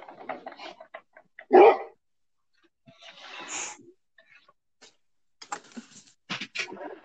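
A feisty dog barks in short, scattered bursts, with one loud bark standing out among quieter yips and whiny sounds, separated by brief pauses.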